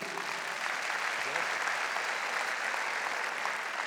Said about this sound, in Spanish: Bienvenido. Voy a pedir un aplauso al Señor por su vida.